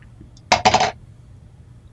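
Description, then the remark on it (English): Dice, rolled for an attack, clatter onto a hard table in a quick burst of two or three rattling impacts, fairly loud, then settle into quiet with a faint click at the end. “Let's roll because they're going to use their goggles.”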